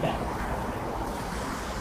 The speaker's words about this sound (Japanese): さっきの雨が嘘みたいに、地面は濡れてるんでね、こうやって多分、音も入ってると思いますけれど、も、なんかこう、車がね、通ると、その、水をこう吐く音といいますか、キュッキュッキュッキュッキュッというようなね、音が聞こえてると思いますよね。